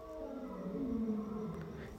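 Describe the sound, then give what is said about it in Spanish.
A real lion at a nearby safari park roars in a long, low, drawn-out call that slowly sinks in pitch, faint against a quiet outdoor background. “Es un león de verdad, no es mentira, ¿eh? Es un safari que hay aquí cerca y, hay leones y eso.”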